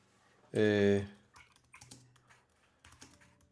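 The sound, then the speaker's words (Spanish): After a short, loud vocal burst, a mechanical keyboard clacks away in quick, uneven bursts of sharp clicks that carry on steadily to the end. “Ahí disculpen el teclado mecánico”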